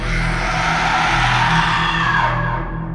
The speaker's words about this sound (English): And as we rushed out, we both could hear a very loud woman scream.